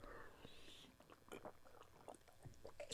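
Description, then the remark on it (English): Quiet chewing of a firm, cold pumpkin candy kept in the freezer or fridge, the cold making it harder to chew, with irregular sticky bites and mouth clicks over about three seconds and no talking. “I can't remember where I got this one, but either way, it was cold, which made it harder to chew.”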